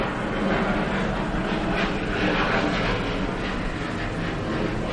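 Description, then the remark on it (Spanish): A loud, steady rumbling roar of airplanes passing low overhead near Barajas in the Community of Madrid, Spain, including the 10:45 flight, fills the whole stretch, broad and unbroken, with no voices. “Justo están pasando unos aviones, disculpad.”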